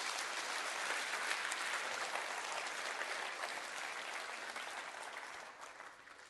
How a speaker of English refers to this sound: Put your hands above your head and clap your hands for grace right now. Amen.